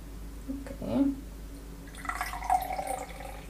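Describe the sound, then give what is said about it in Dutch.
Liquid pours steadily from a carton, with its screw cap on the upper side, into a glass: a smooth continuous splashing stream lasting a couple of seconds without glugging or sloshing, preceded by a few soft handling sounds. “Je hoort nu ook dat het eigenlijk in een vloeiende beweging eh, eruit komt.”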